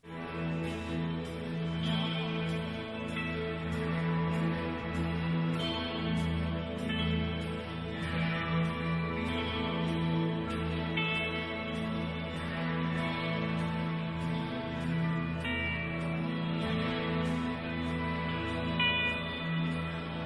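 A massive wall of electric guitars rings out together in a thick, sustained drone, shimmering chords layered densely and holding steady and loud throughout, with no voices.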